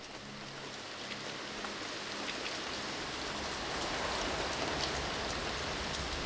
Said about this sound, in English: A storm is approaching Galveston Bay. Winds are raging. The storm surge is over 30 feet.